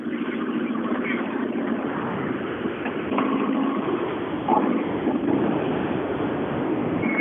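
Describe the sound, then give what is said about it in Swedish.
An Opel Corsa A rally car, with Opel Motorsport decals over the front wings, runs its engine steadily at a fairly constant pace, a continuous low rumble with a slightly rough edge, fairly loud for several seconds without anyone talking. “Åh, vad den går fint den där!”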